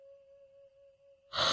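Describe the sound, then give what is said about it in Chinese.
A short, stocky young man, bleary-eyed, yawns as he walks across a courtyard toward the toilet in its west corner: a drawn-out, steady voiced tone held for over a second, ending abruptly in a loud, breathy exhale. “一个矮壮的年轻人推开门，到了院子里，睡眼朦胧，一边打着哈欠，一边向院子西角的厕所走去。”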